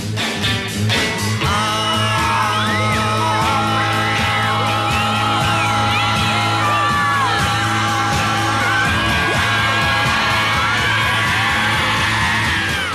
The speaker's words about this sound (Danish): Så mange på én gang, der råbte og skreg, og de skreg virkelig.